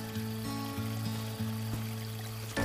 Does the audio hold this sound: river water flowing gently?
yes